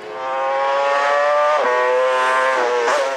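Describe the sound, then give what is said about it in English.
A racing motorcycle in a TT race screams at high revs as the rider brakes, shifts and twists the throttle, loud and continuous for about three seconds, its pitch briefly dropping two or three times as gears shift. No voices. “Riders are constantly braking, shifting, and twisting the throttle thousands of times every lap.”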